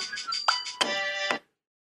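An iPad rings with an incoming FaceTime call, a bright, chiming melody of sustained tones with a few sharp accents, moderately loud, then cuts off abruptly after about a second and a half.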